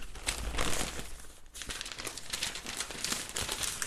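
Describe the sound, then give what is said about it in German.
The pages of a printed paper newspaper are demonstratively rustled and crinkled continuously for a few seconds, fairly loud, with a brief pause midway before the crisp paper handling resumes. No one speaks. “Das ist mein Lieblingsteil, wenn ich hier so mit rascheln kann, so, so demonstrativ, um zu zeigen, ich habe wirklich die, die Papierzeitung.”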